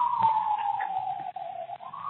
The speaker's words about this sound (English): that's not good. I don't know where it's at. I feel like there's sirens circling me no matter where I go.